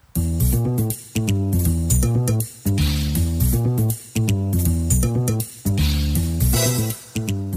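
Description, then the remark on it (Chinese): An upbeat instrumental theme tune with a steady driving beat, bright repeating chords and bass, played loud in phrases of roughly a second and a half, with no voices. “好，欢迎来到喷发互推。好，主题曲。”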